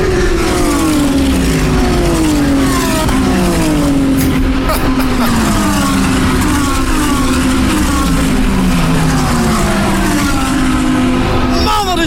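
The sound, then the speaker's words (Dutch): A loud racing engine revs hard and continuously for about twelve seconds, its pitch climbing and dropping in repeated sweeps like quick gear changes as it roars by: the race car Valentino Rossi drives, now driven by his teammate. “Maar dat is de wagen waar hij in rijdt.”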